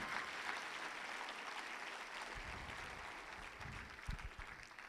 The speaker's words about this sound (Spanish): Alguien dale un aplauso fuerte al Señor.